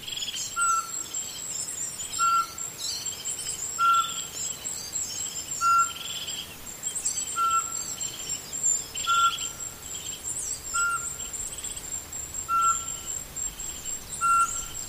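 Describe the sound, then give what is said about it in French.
A song thrush sings without pause, its bright, high phrases tumbling over one another while a short, clear whistled note repeats at steady intervals of a second or two throughout. “un des, des premiers qui chante le euh, matin et qui envahit, on va dire, tout, l'espace sonore. il s'agit de la griffe musicienne.”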